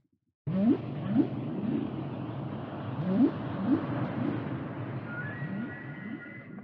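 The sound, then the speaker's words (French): Whale song: a series of low, rising whooping calls repeating every second or so over a steady wash of underwater noise, with a faint higher tone near the end. “écouter un petit extrait de chant de baleine”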